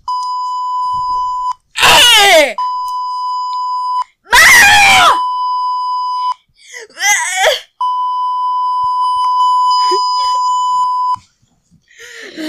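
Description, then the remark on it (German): A person screams loudly in three short, piercing bursts, each breaking into a long, steady high-pitched beep tone that drones between them, with no talking. “Bist du fertig mit Schreien?”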